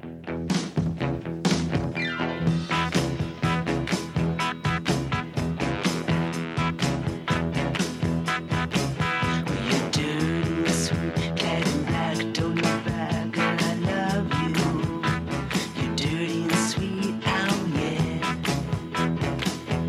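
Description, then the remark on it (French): A loud, driving, famous rock guitar riff repeats over a full band with bass and steady pounding drums, playing continuously for the whole stretch with no voices. “c'est déjà un riff que tu reconnais euh, entre mille.”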